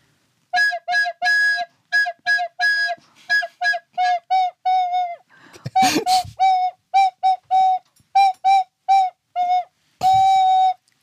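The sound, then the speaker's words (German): A breathy, whistle-like blown tone plays the Jingle Bells melody in short rhythmic notes ending on a long held one, with a brief noisy burst midway. “Ja, natürlich Jingle Bells.”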